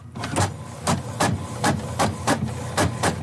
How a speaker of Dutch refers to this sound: Herkennen jullie hem? printer. ja, een beetje een ouderwetse printer is het wel hoor, als ik het zo hoor.